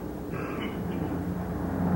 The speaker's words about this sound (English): Listen. Yeah, it's a plane. So that's what was the matter with Fingers. Where is it? There, see? There it is. Plenty high, but it's up there.